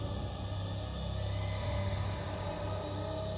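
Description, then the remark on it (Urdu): A car engine drones in a low, steady, labored rumble, heavy, holding one strained pitch throughout with no voices present, as the car struggles to move forward along a road. “اس کی ٹانگیں اتنی لمبی ہو چکی تھیں کہ اس نے گاڑی کی کھڑکی سے باہر لٹکا رکھی تھی اور پاؤں سڑک پر گھسیٹ رہے تھے اسی وجہ سے گاڑی کو آگے بڑھانا مشکل ہو رہا تھا”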